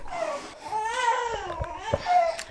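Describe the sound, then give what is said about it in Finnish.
A two-month-old baby of a family in Kuopio, Finland, cries in a steady, wavering wail that rises and falls in pitch, moderately loud, with a few soft clicks and bumps in the background. “Meillä vähän väsyi.”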